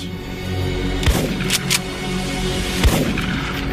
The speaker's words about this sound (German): Perrys Geständnis zufolge ging er selbst zurück zum Auto, um sich eine Zigarette zu holen. Währenddessen habe Jason Burkett Adam Stotler erschossen. Ein Schuss. Anschließend noch zwei Schüsse.